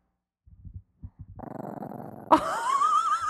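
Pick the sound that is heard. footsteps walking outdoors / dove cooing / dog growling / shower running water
dog growling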